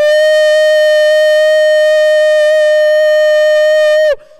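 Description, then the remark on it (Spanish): A single loud, sustained trumpet warning blast, as of a watchman warning of danger approaching the city, holds one steady, bright pitch for about four seconds, then cuts off abruptly with a brief downward bend. No voices accompany it. “Y si, y si el, veía peligro que se estaba acercando a la ciudad, él agarraba una trompeta ¡Uh!”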